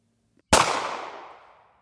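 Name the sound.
gunshot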